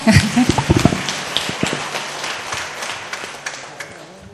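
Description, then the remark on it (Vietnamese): An audience breaks into applause, a dense crackle of many hands clapping that starts strong with a few sharp claps and then settles into a steady, slightly softer patter. “cho một trang vỗ tay”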